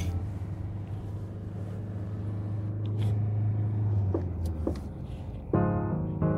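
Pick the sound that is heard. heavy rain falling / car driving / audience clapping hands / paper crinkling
car driving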